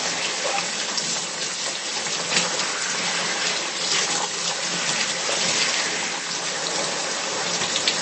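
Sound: running water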